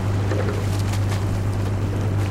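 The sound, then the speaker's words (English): A rowing crew shell glides along a river in Boston, with steady rushing water and wind noise over a constant low droning hum, fairly loud, no voices. “We leave you this week on a cruise down the river.”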